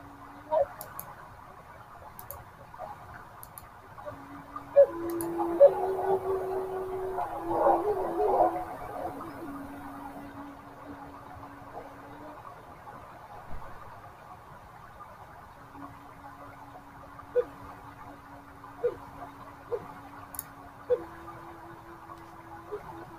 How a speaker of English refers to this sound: So that right there, what you just heard was a Native American flute, music, and rain. So hope you all enjoyed that.